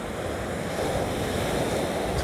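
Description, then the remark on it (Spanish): Rough Puerto Rican ocean surf roars steadily, a dense continuous wash of breaking water mixed with wind rushing across the microphone. No one speaks. “Aquí hoy hay una persona que esta área no es de, hacer deportes acuáticos, porque pues, el océano es un poquito bravo.”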